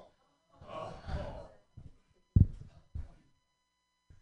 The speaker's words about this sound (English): I have nods from the black guy. That means that it's okay. And sad groans from all the white people.